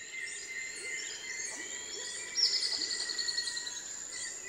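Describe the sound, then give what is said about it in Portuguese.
A high, delicate ornate antwren song, a few metres away, rises as a quick run of thin, evenly spaced clear notes over a steady morning chorus of birds and insects. “É o caso, por exemplo, desse pássaro que canta a poucos metros de nós. É uma choquinha ornada. O seu canto agudo e delicado avisa os outros pássaros que o dia já começou.”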